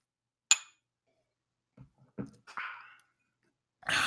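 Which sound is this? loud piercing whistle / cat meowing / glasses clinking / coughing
glasses clinking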